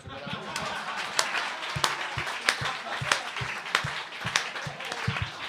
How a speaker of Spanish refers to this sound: tú eres enfermera y hay que darte el puto aplauso de las ocho